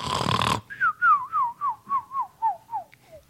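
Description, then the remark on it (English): A voice imitates a cartoon-style snore for a nap on the couch: a rough, noisy snort followed by a rhythmic run of about nine short, falling whistled notes, fairly loud, with no talking. “Nice old nap on the couch with the dog, huh?”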